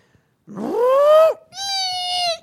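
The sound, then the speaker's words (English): A voice imitates the screeching brakes of a speeding car slamming on its brakes at night, with two loud, high squeals. The first rises in pitch and the second holds a steady shrill tone, separated by a brief pause. “This car would just be flying and just slam on its brakes. You could just hear the brakes screeching.”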